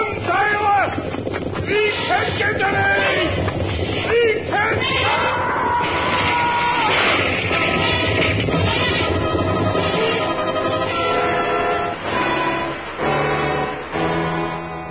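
A loud, continuous stampede of elephants let out through a gate and rushing back into the jungle: a heavy rumbling din of pounding feet with shrill, wavering trumpet calls rising over it, sustained without pause for the whole stretch.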